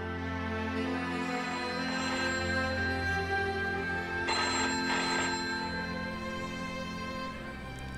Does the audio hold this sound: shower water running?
no